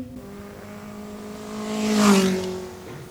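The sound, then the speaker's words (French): A motorcycle engine revs, its tone climbing and swelling to a loud peak about two-thirds through before easing off slightly, like a bike accelerating. No voices are heard. “Faire de la moto.”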